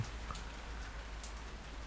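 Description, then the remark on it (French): Steady rain falls outside a window under a low, grey sky during lockdown, a soft, continuous hiss with a few brighter drops tapping now and then. It stays quiet and even throughout, with no voices. “Je regarde la pluie tomber à travers la vitre.”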